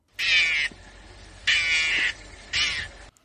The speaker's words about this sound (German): Es ist die Manguste, steht hier. Hier beim Auftauchen eines Löwen. Ah, dann klingt es offenbar so.